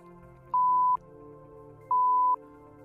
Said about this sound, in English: Wait a minute. What was that beep?